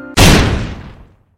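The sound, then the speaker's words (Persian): A single loud gunshot cracks out in a room after a brief soft tone, its sharp blast ringing off into a reverberant tail that fades over about a second. “یه دفعه صدای شلیک فضای اتاق رو پر کرد”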